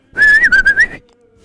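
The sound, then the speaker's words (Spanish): A person whistles a short, loud phrase imitating the Silbo Gomero, the whistled language of La Gomera in the Canary Islands, the pitch gliding up and down in a few quick pulses for about a second, with no talking. “Que lo que sabemos de La Gomera todos, y yo el primero, es lo del silbo...”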